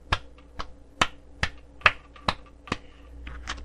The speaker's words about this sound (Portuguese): Eu tenho que bater palmas, ó.